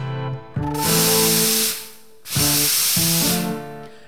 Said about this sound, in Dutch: De koffie loopt.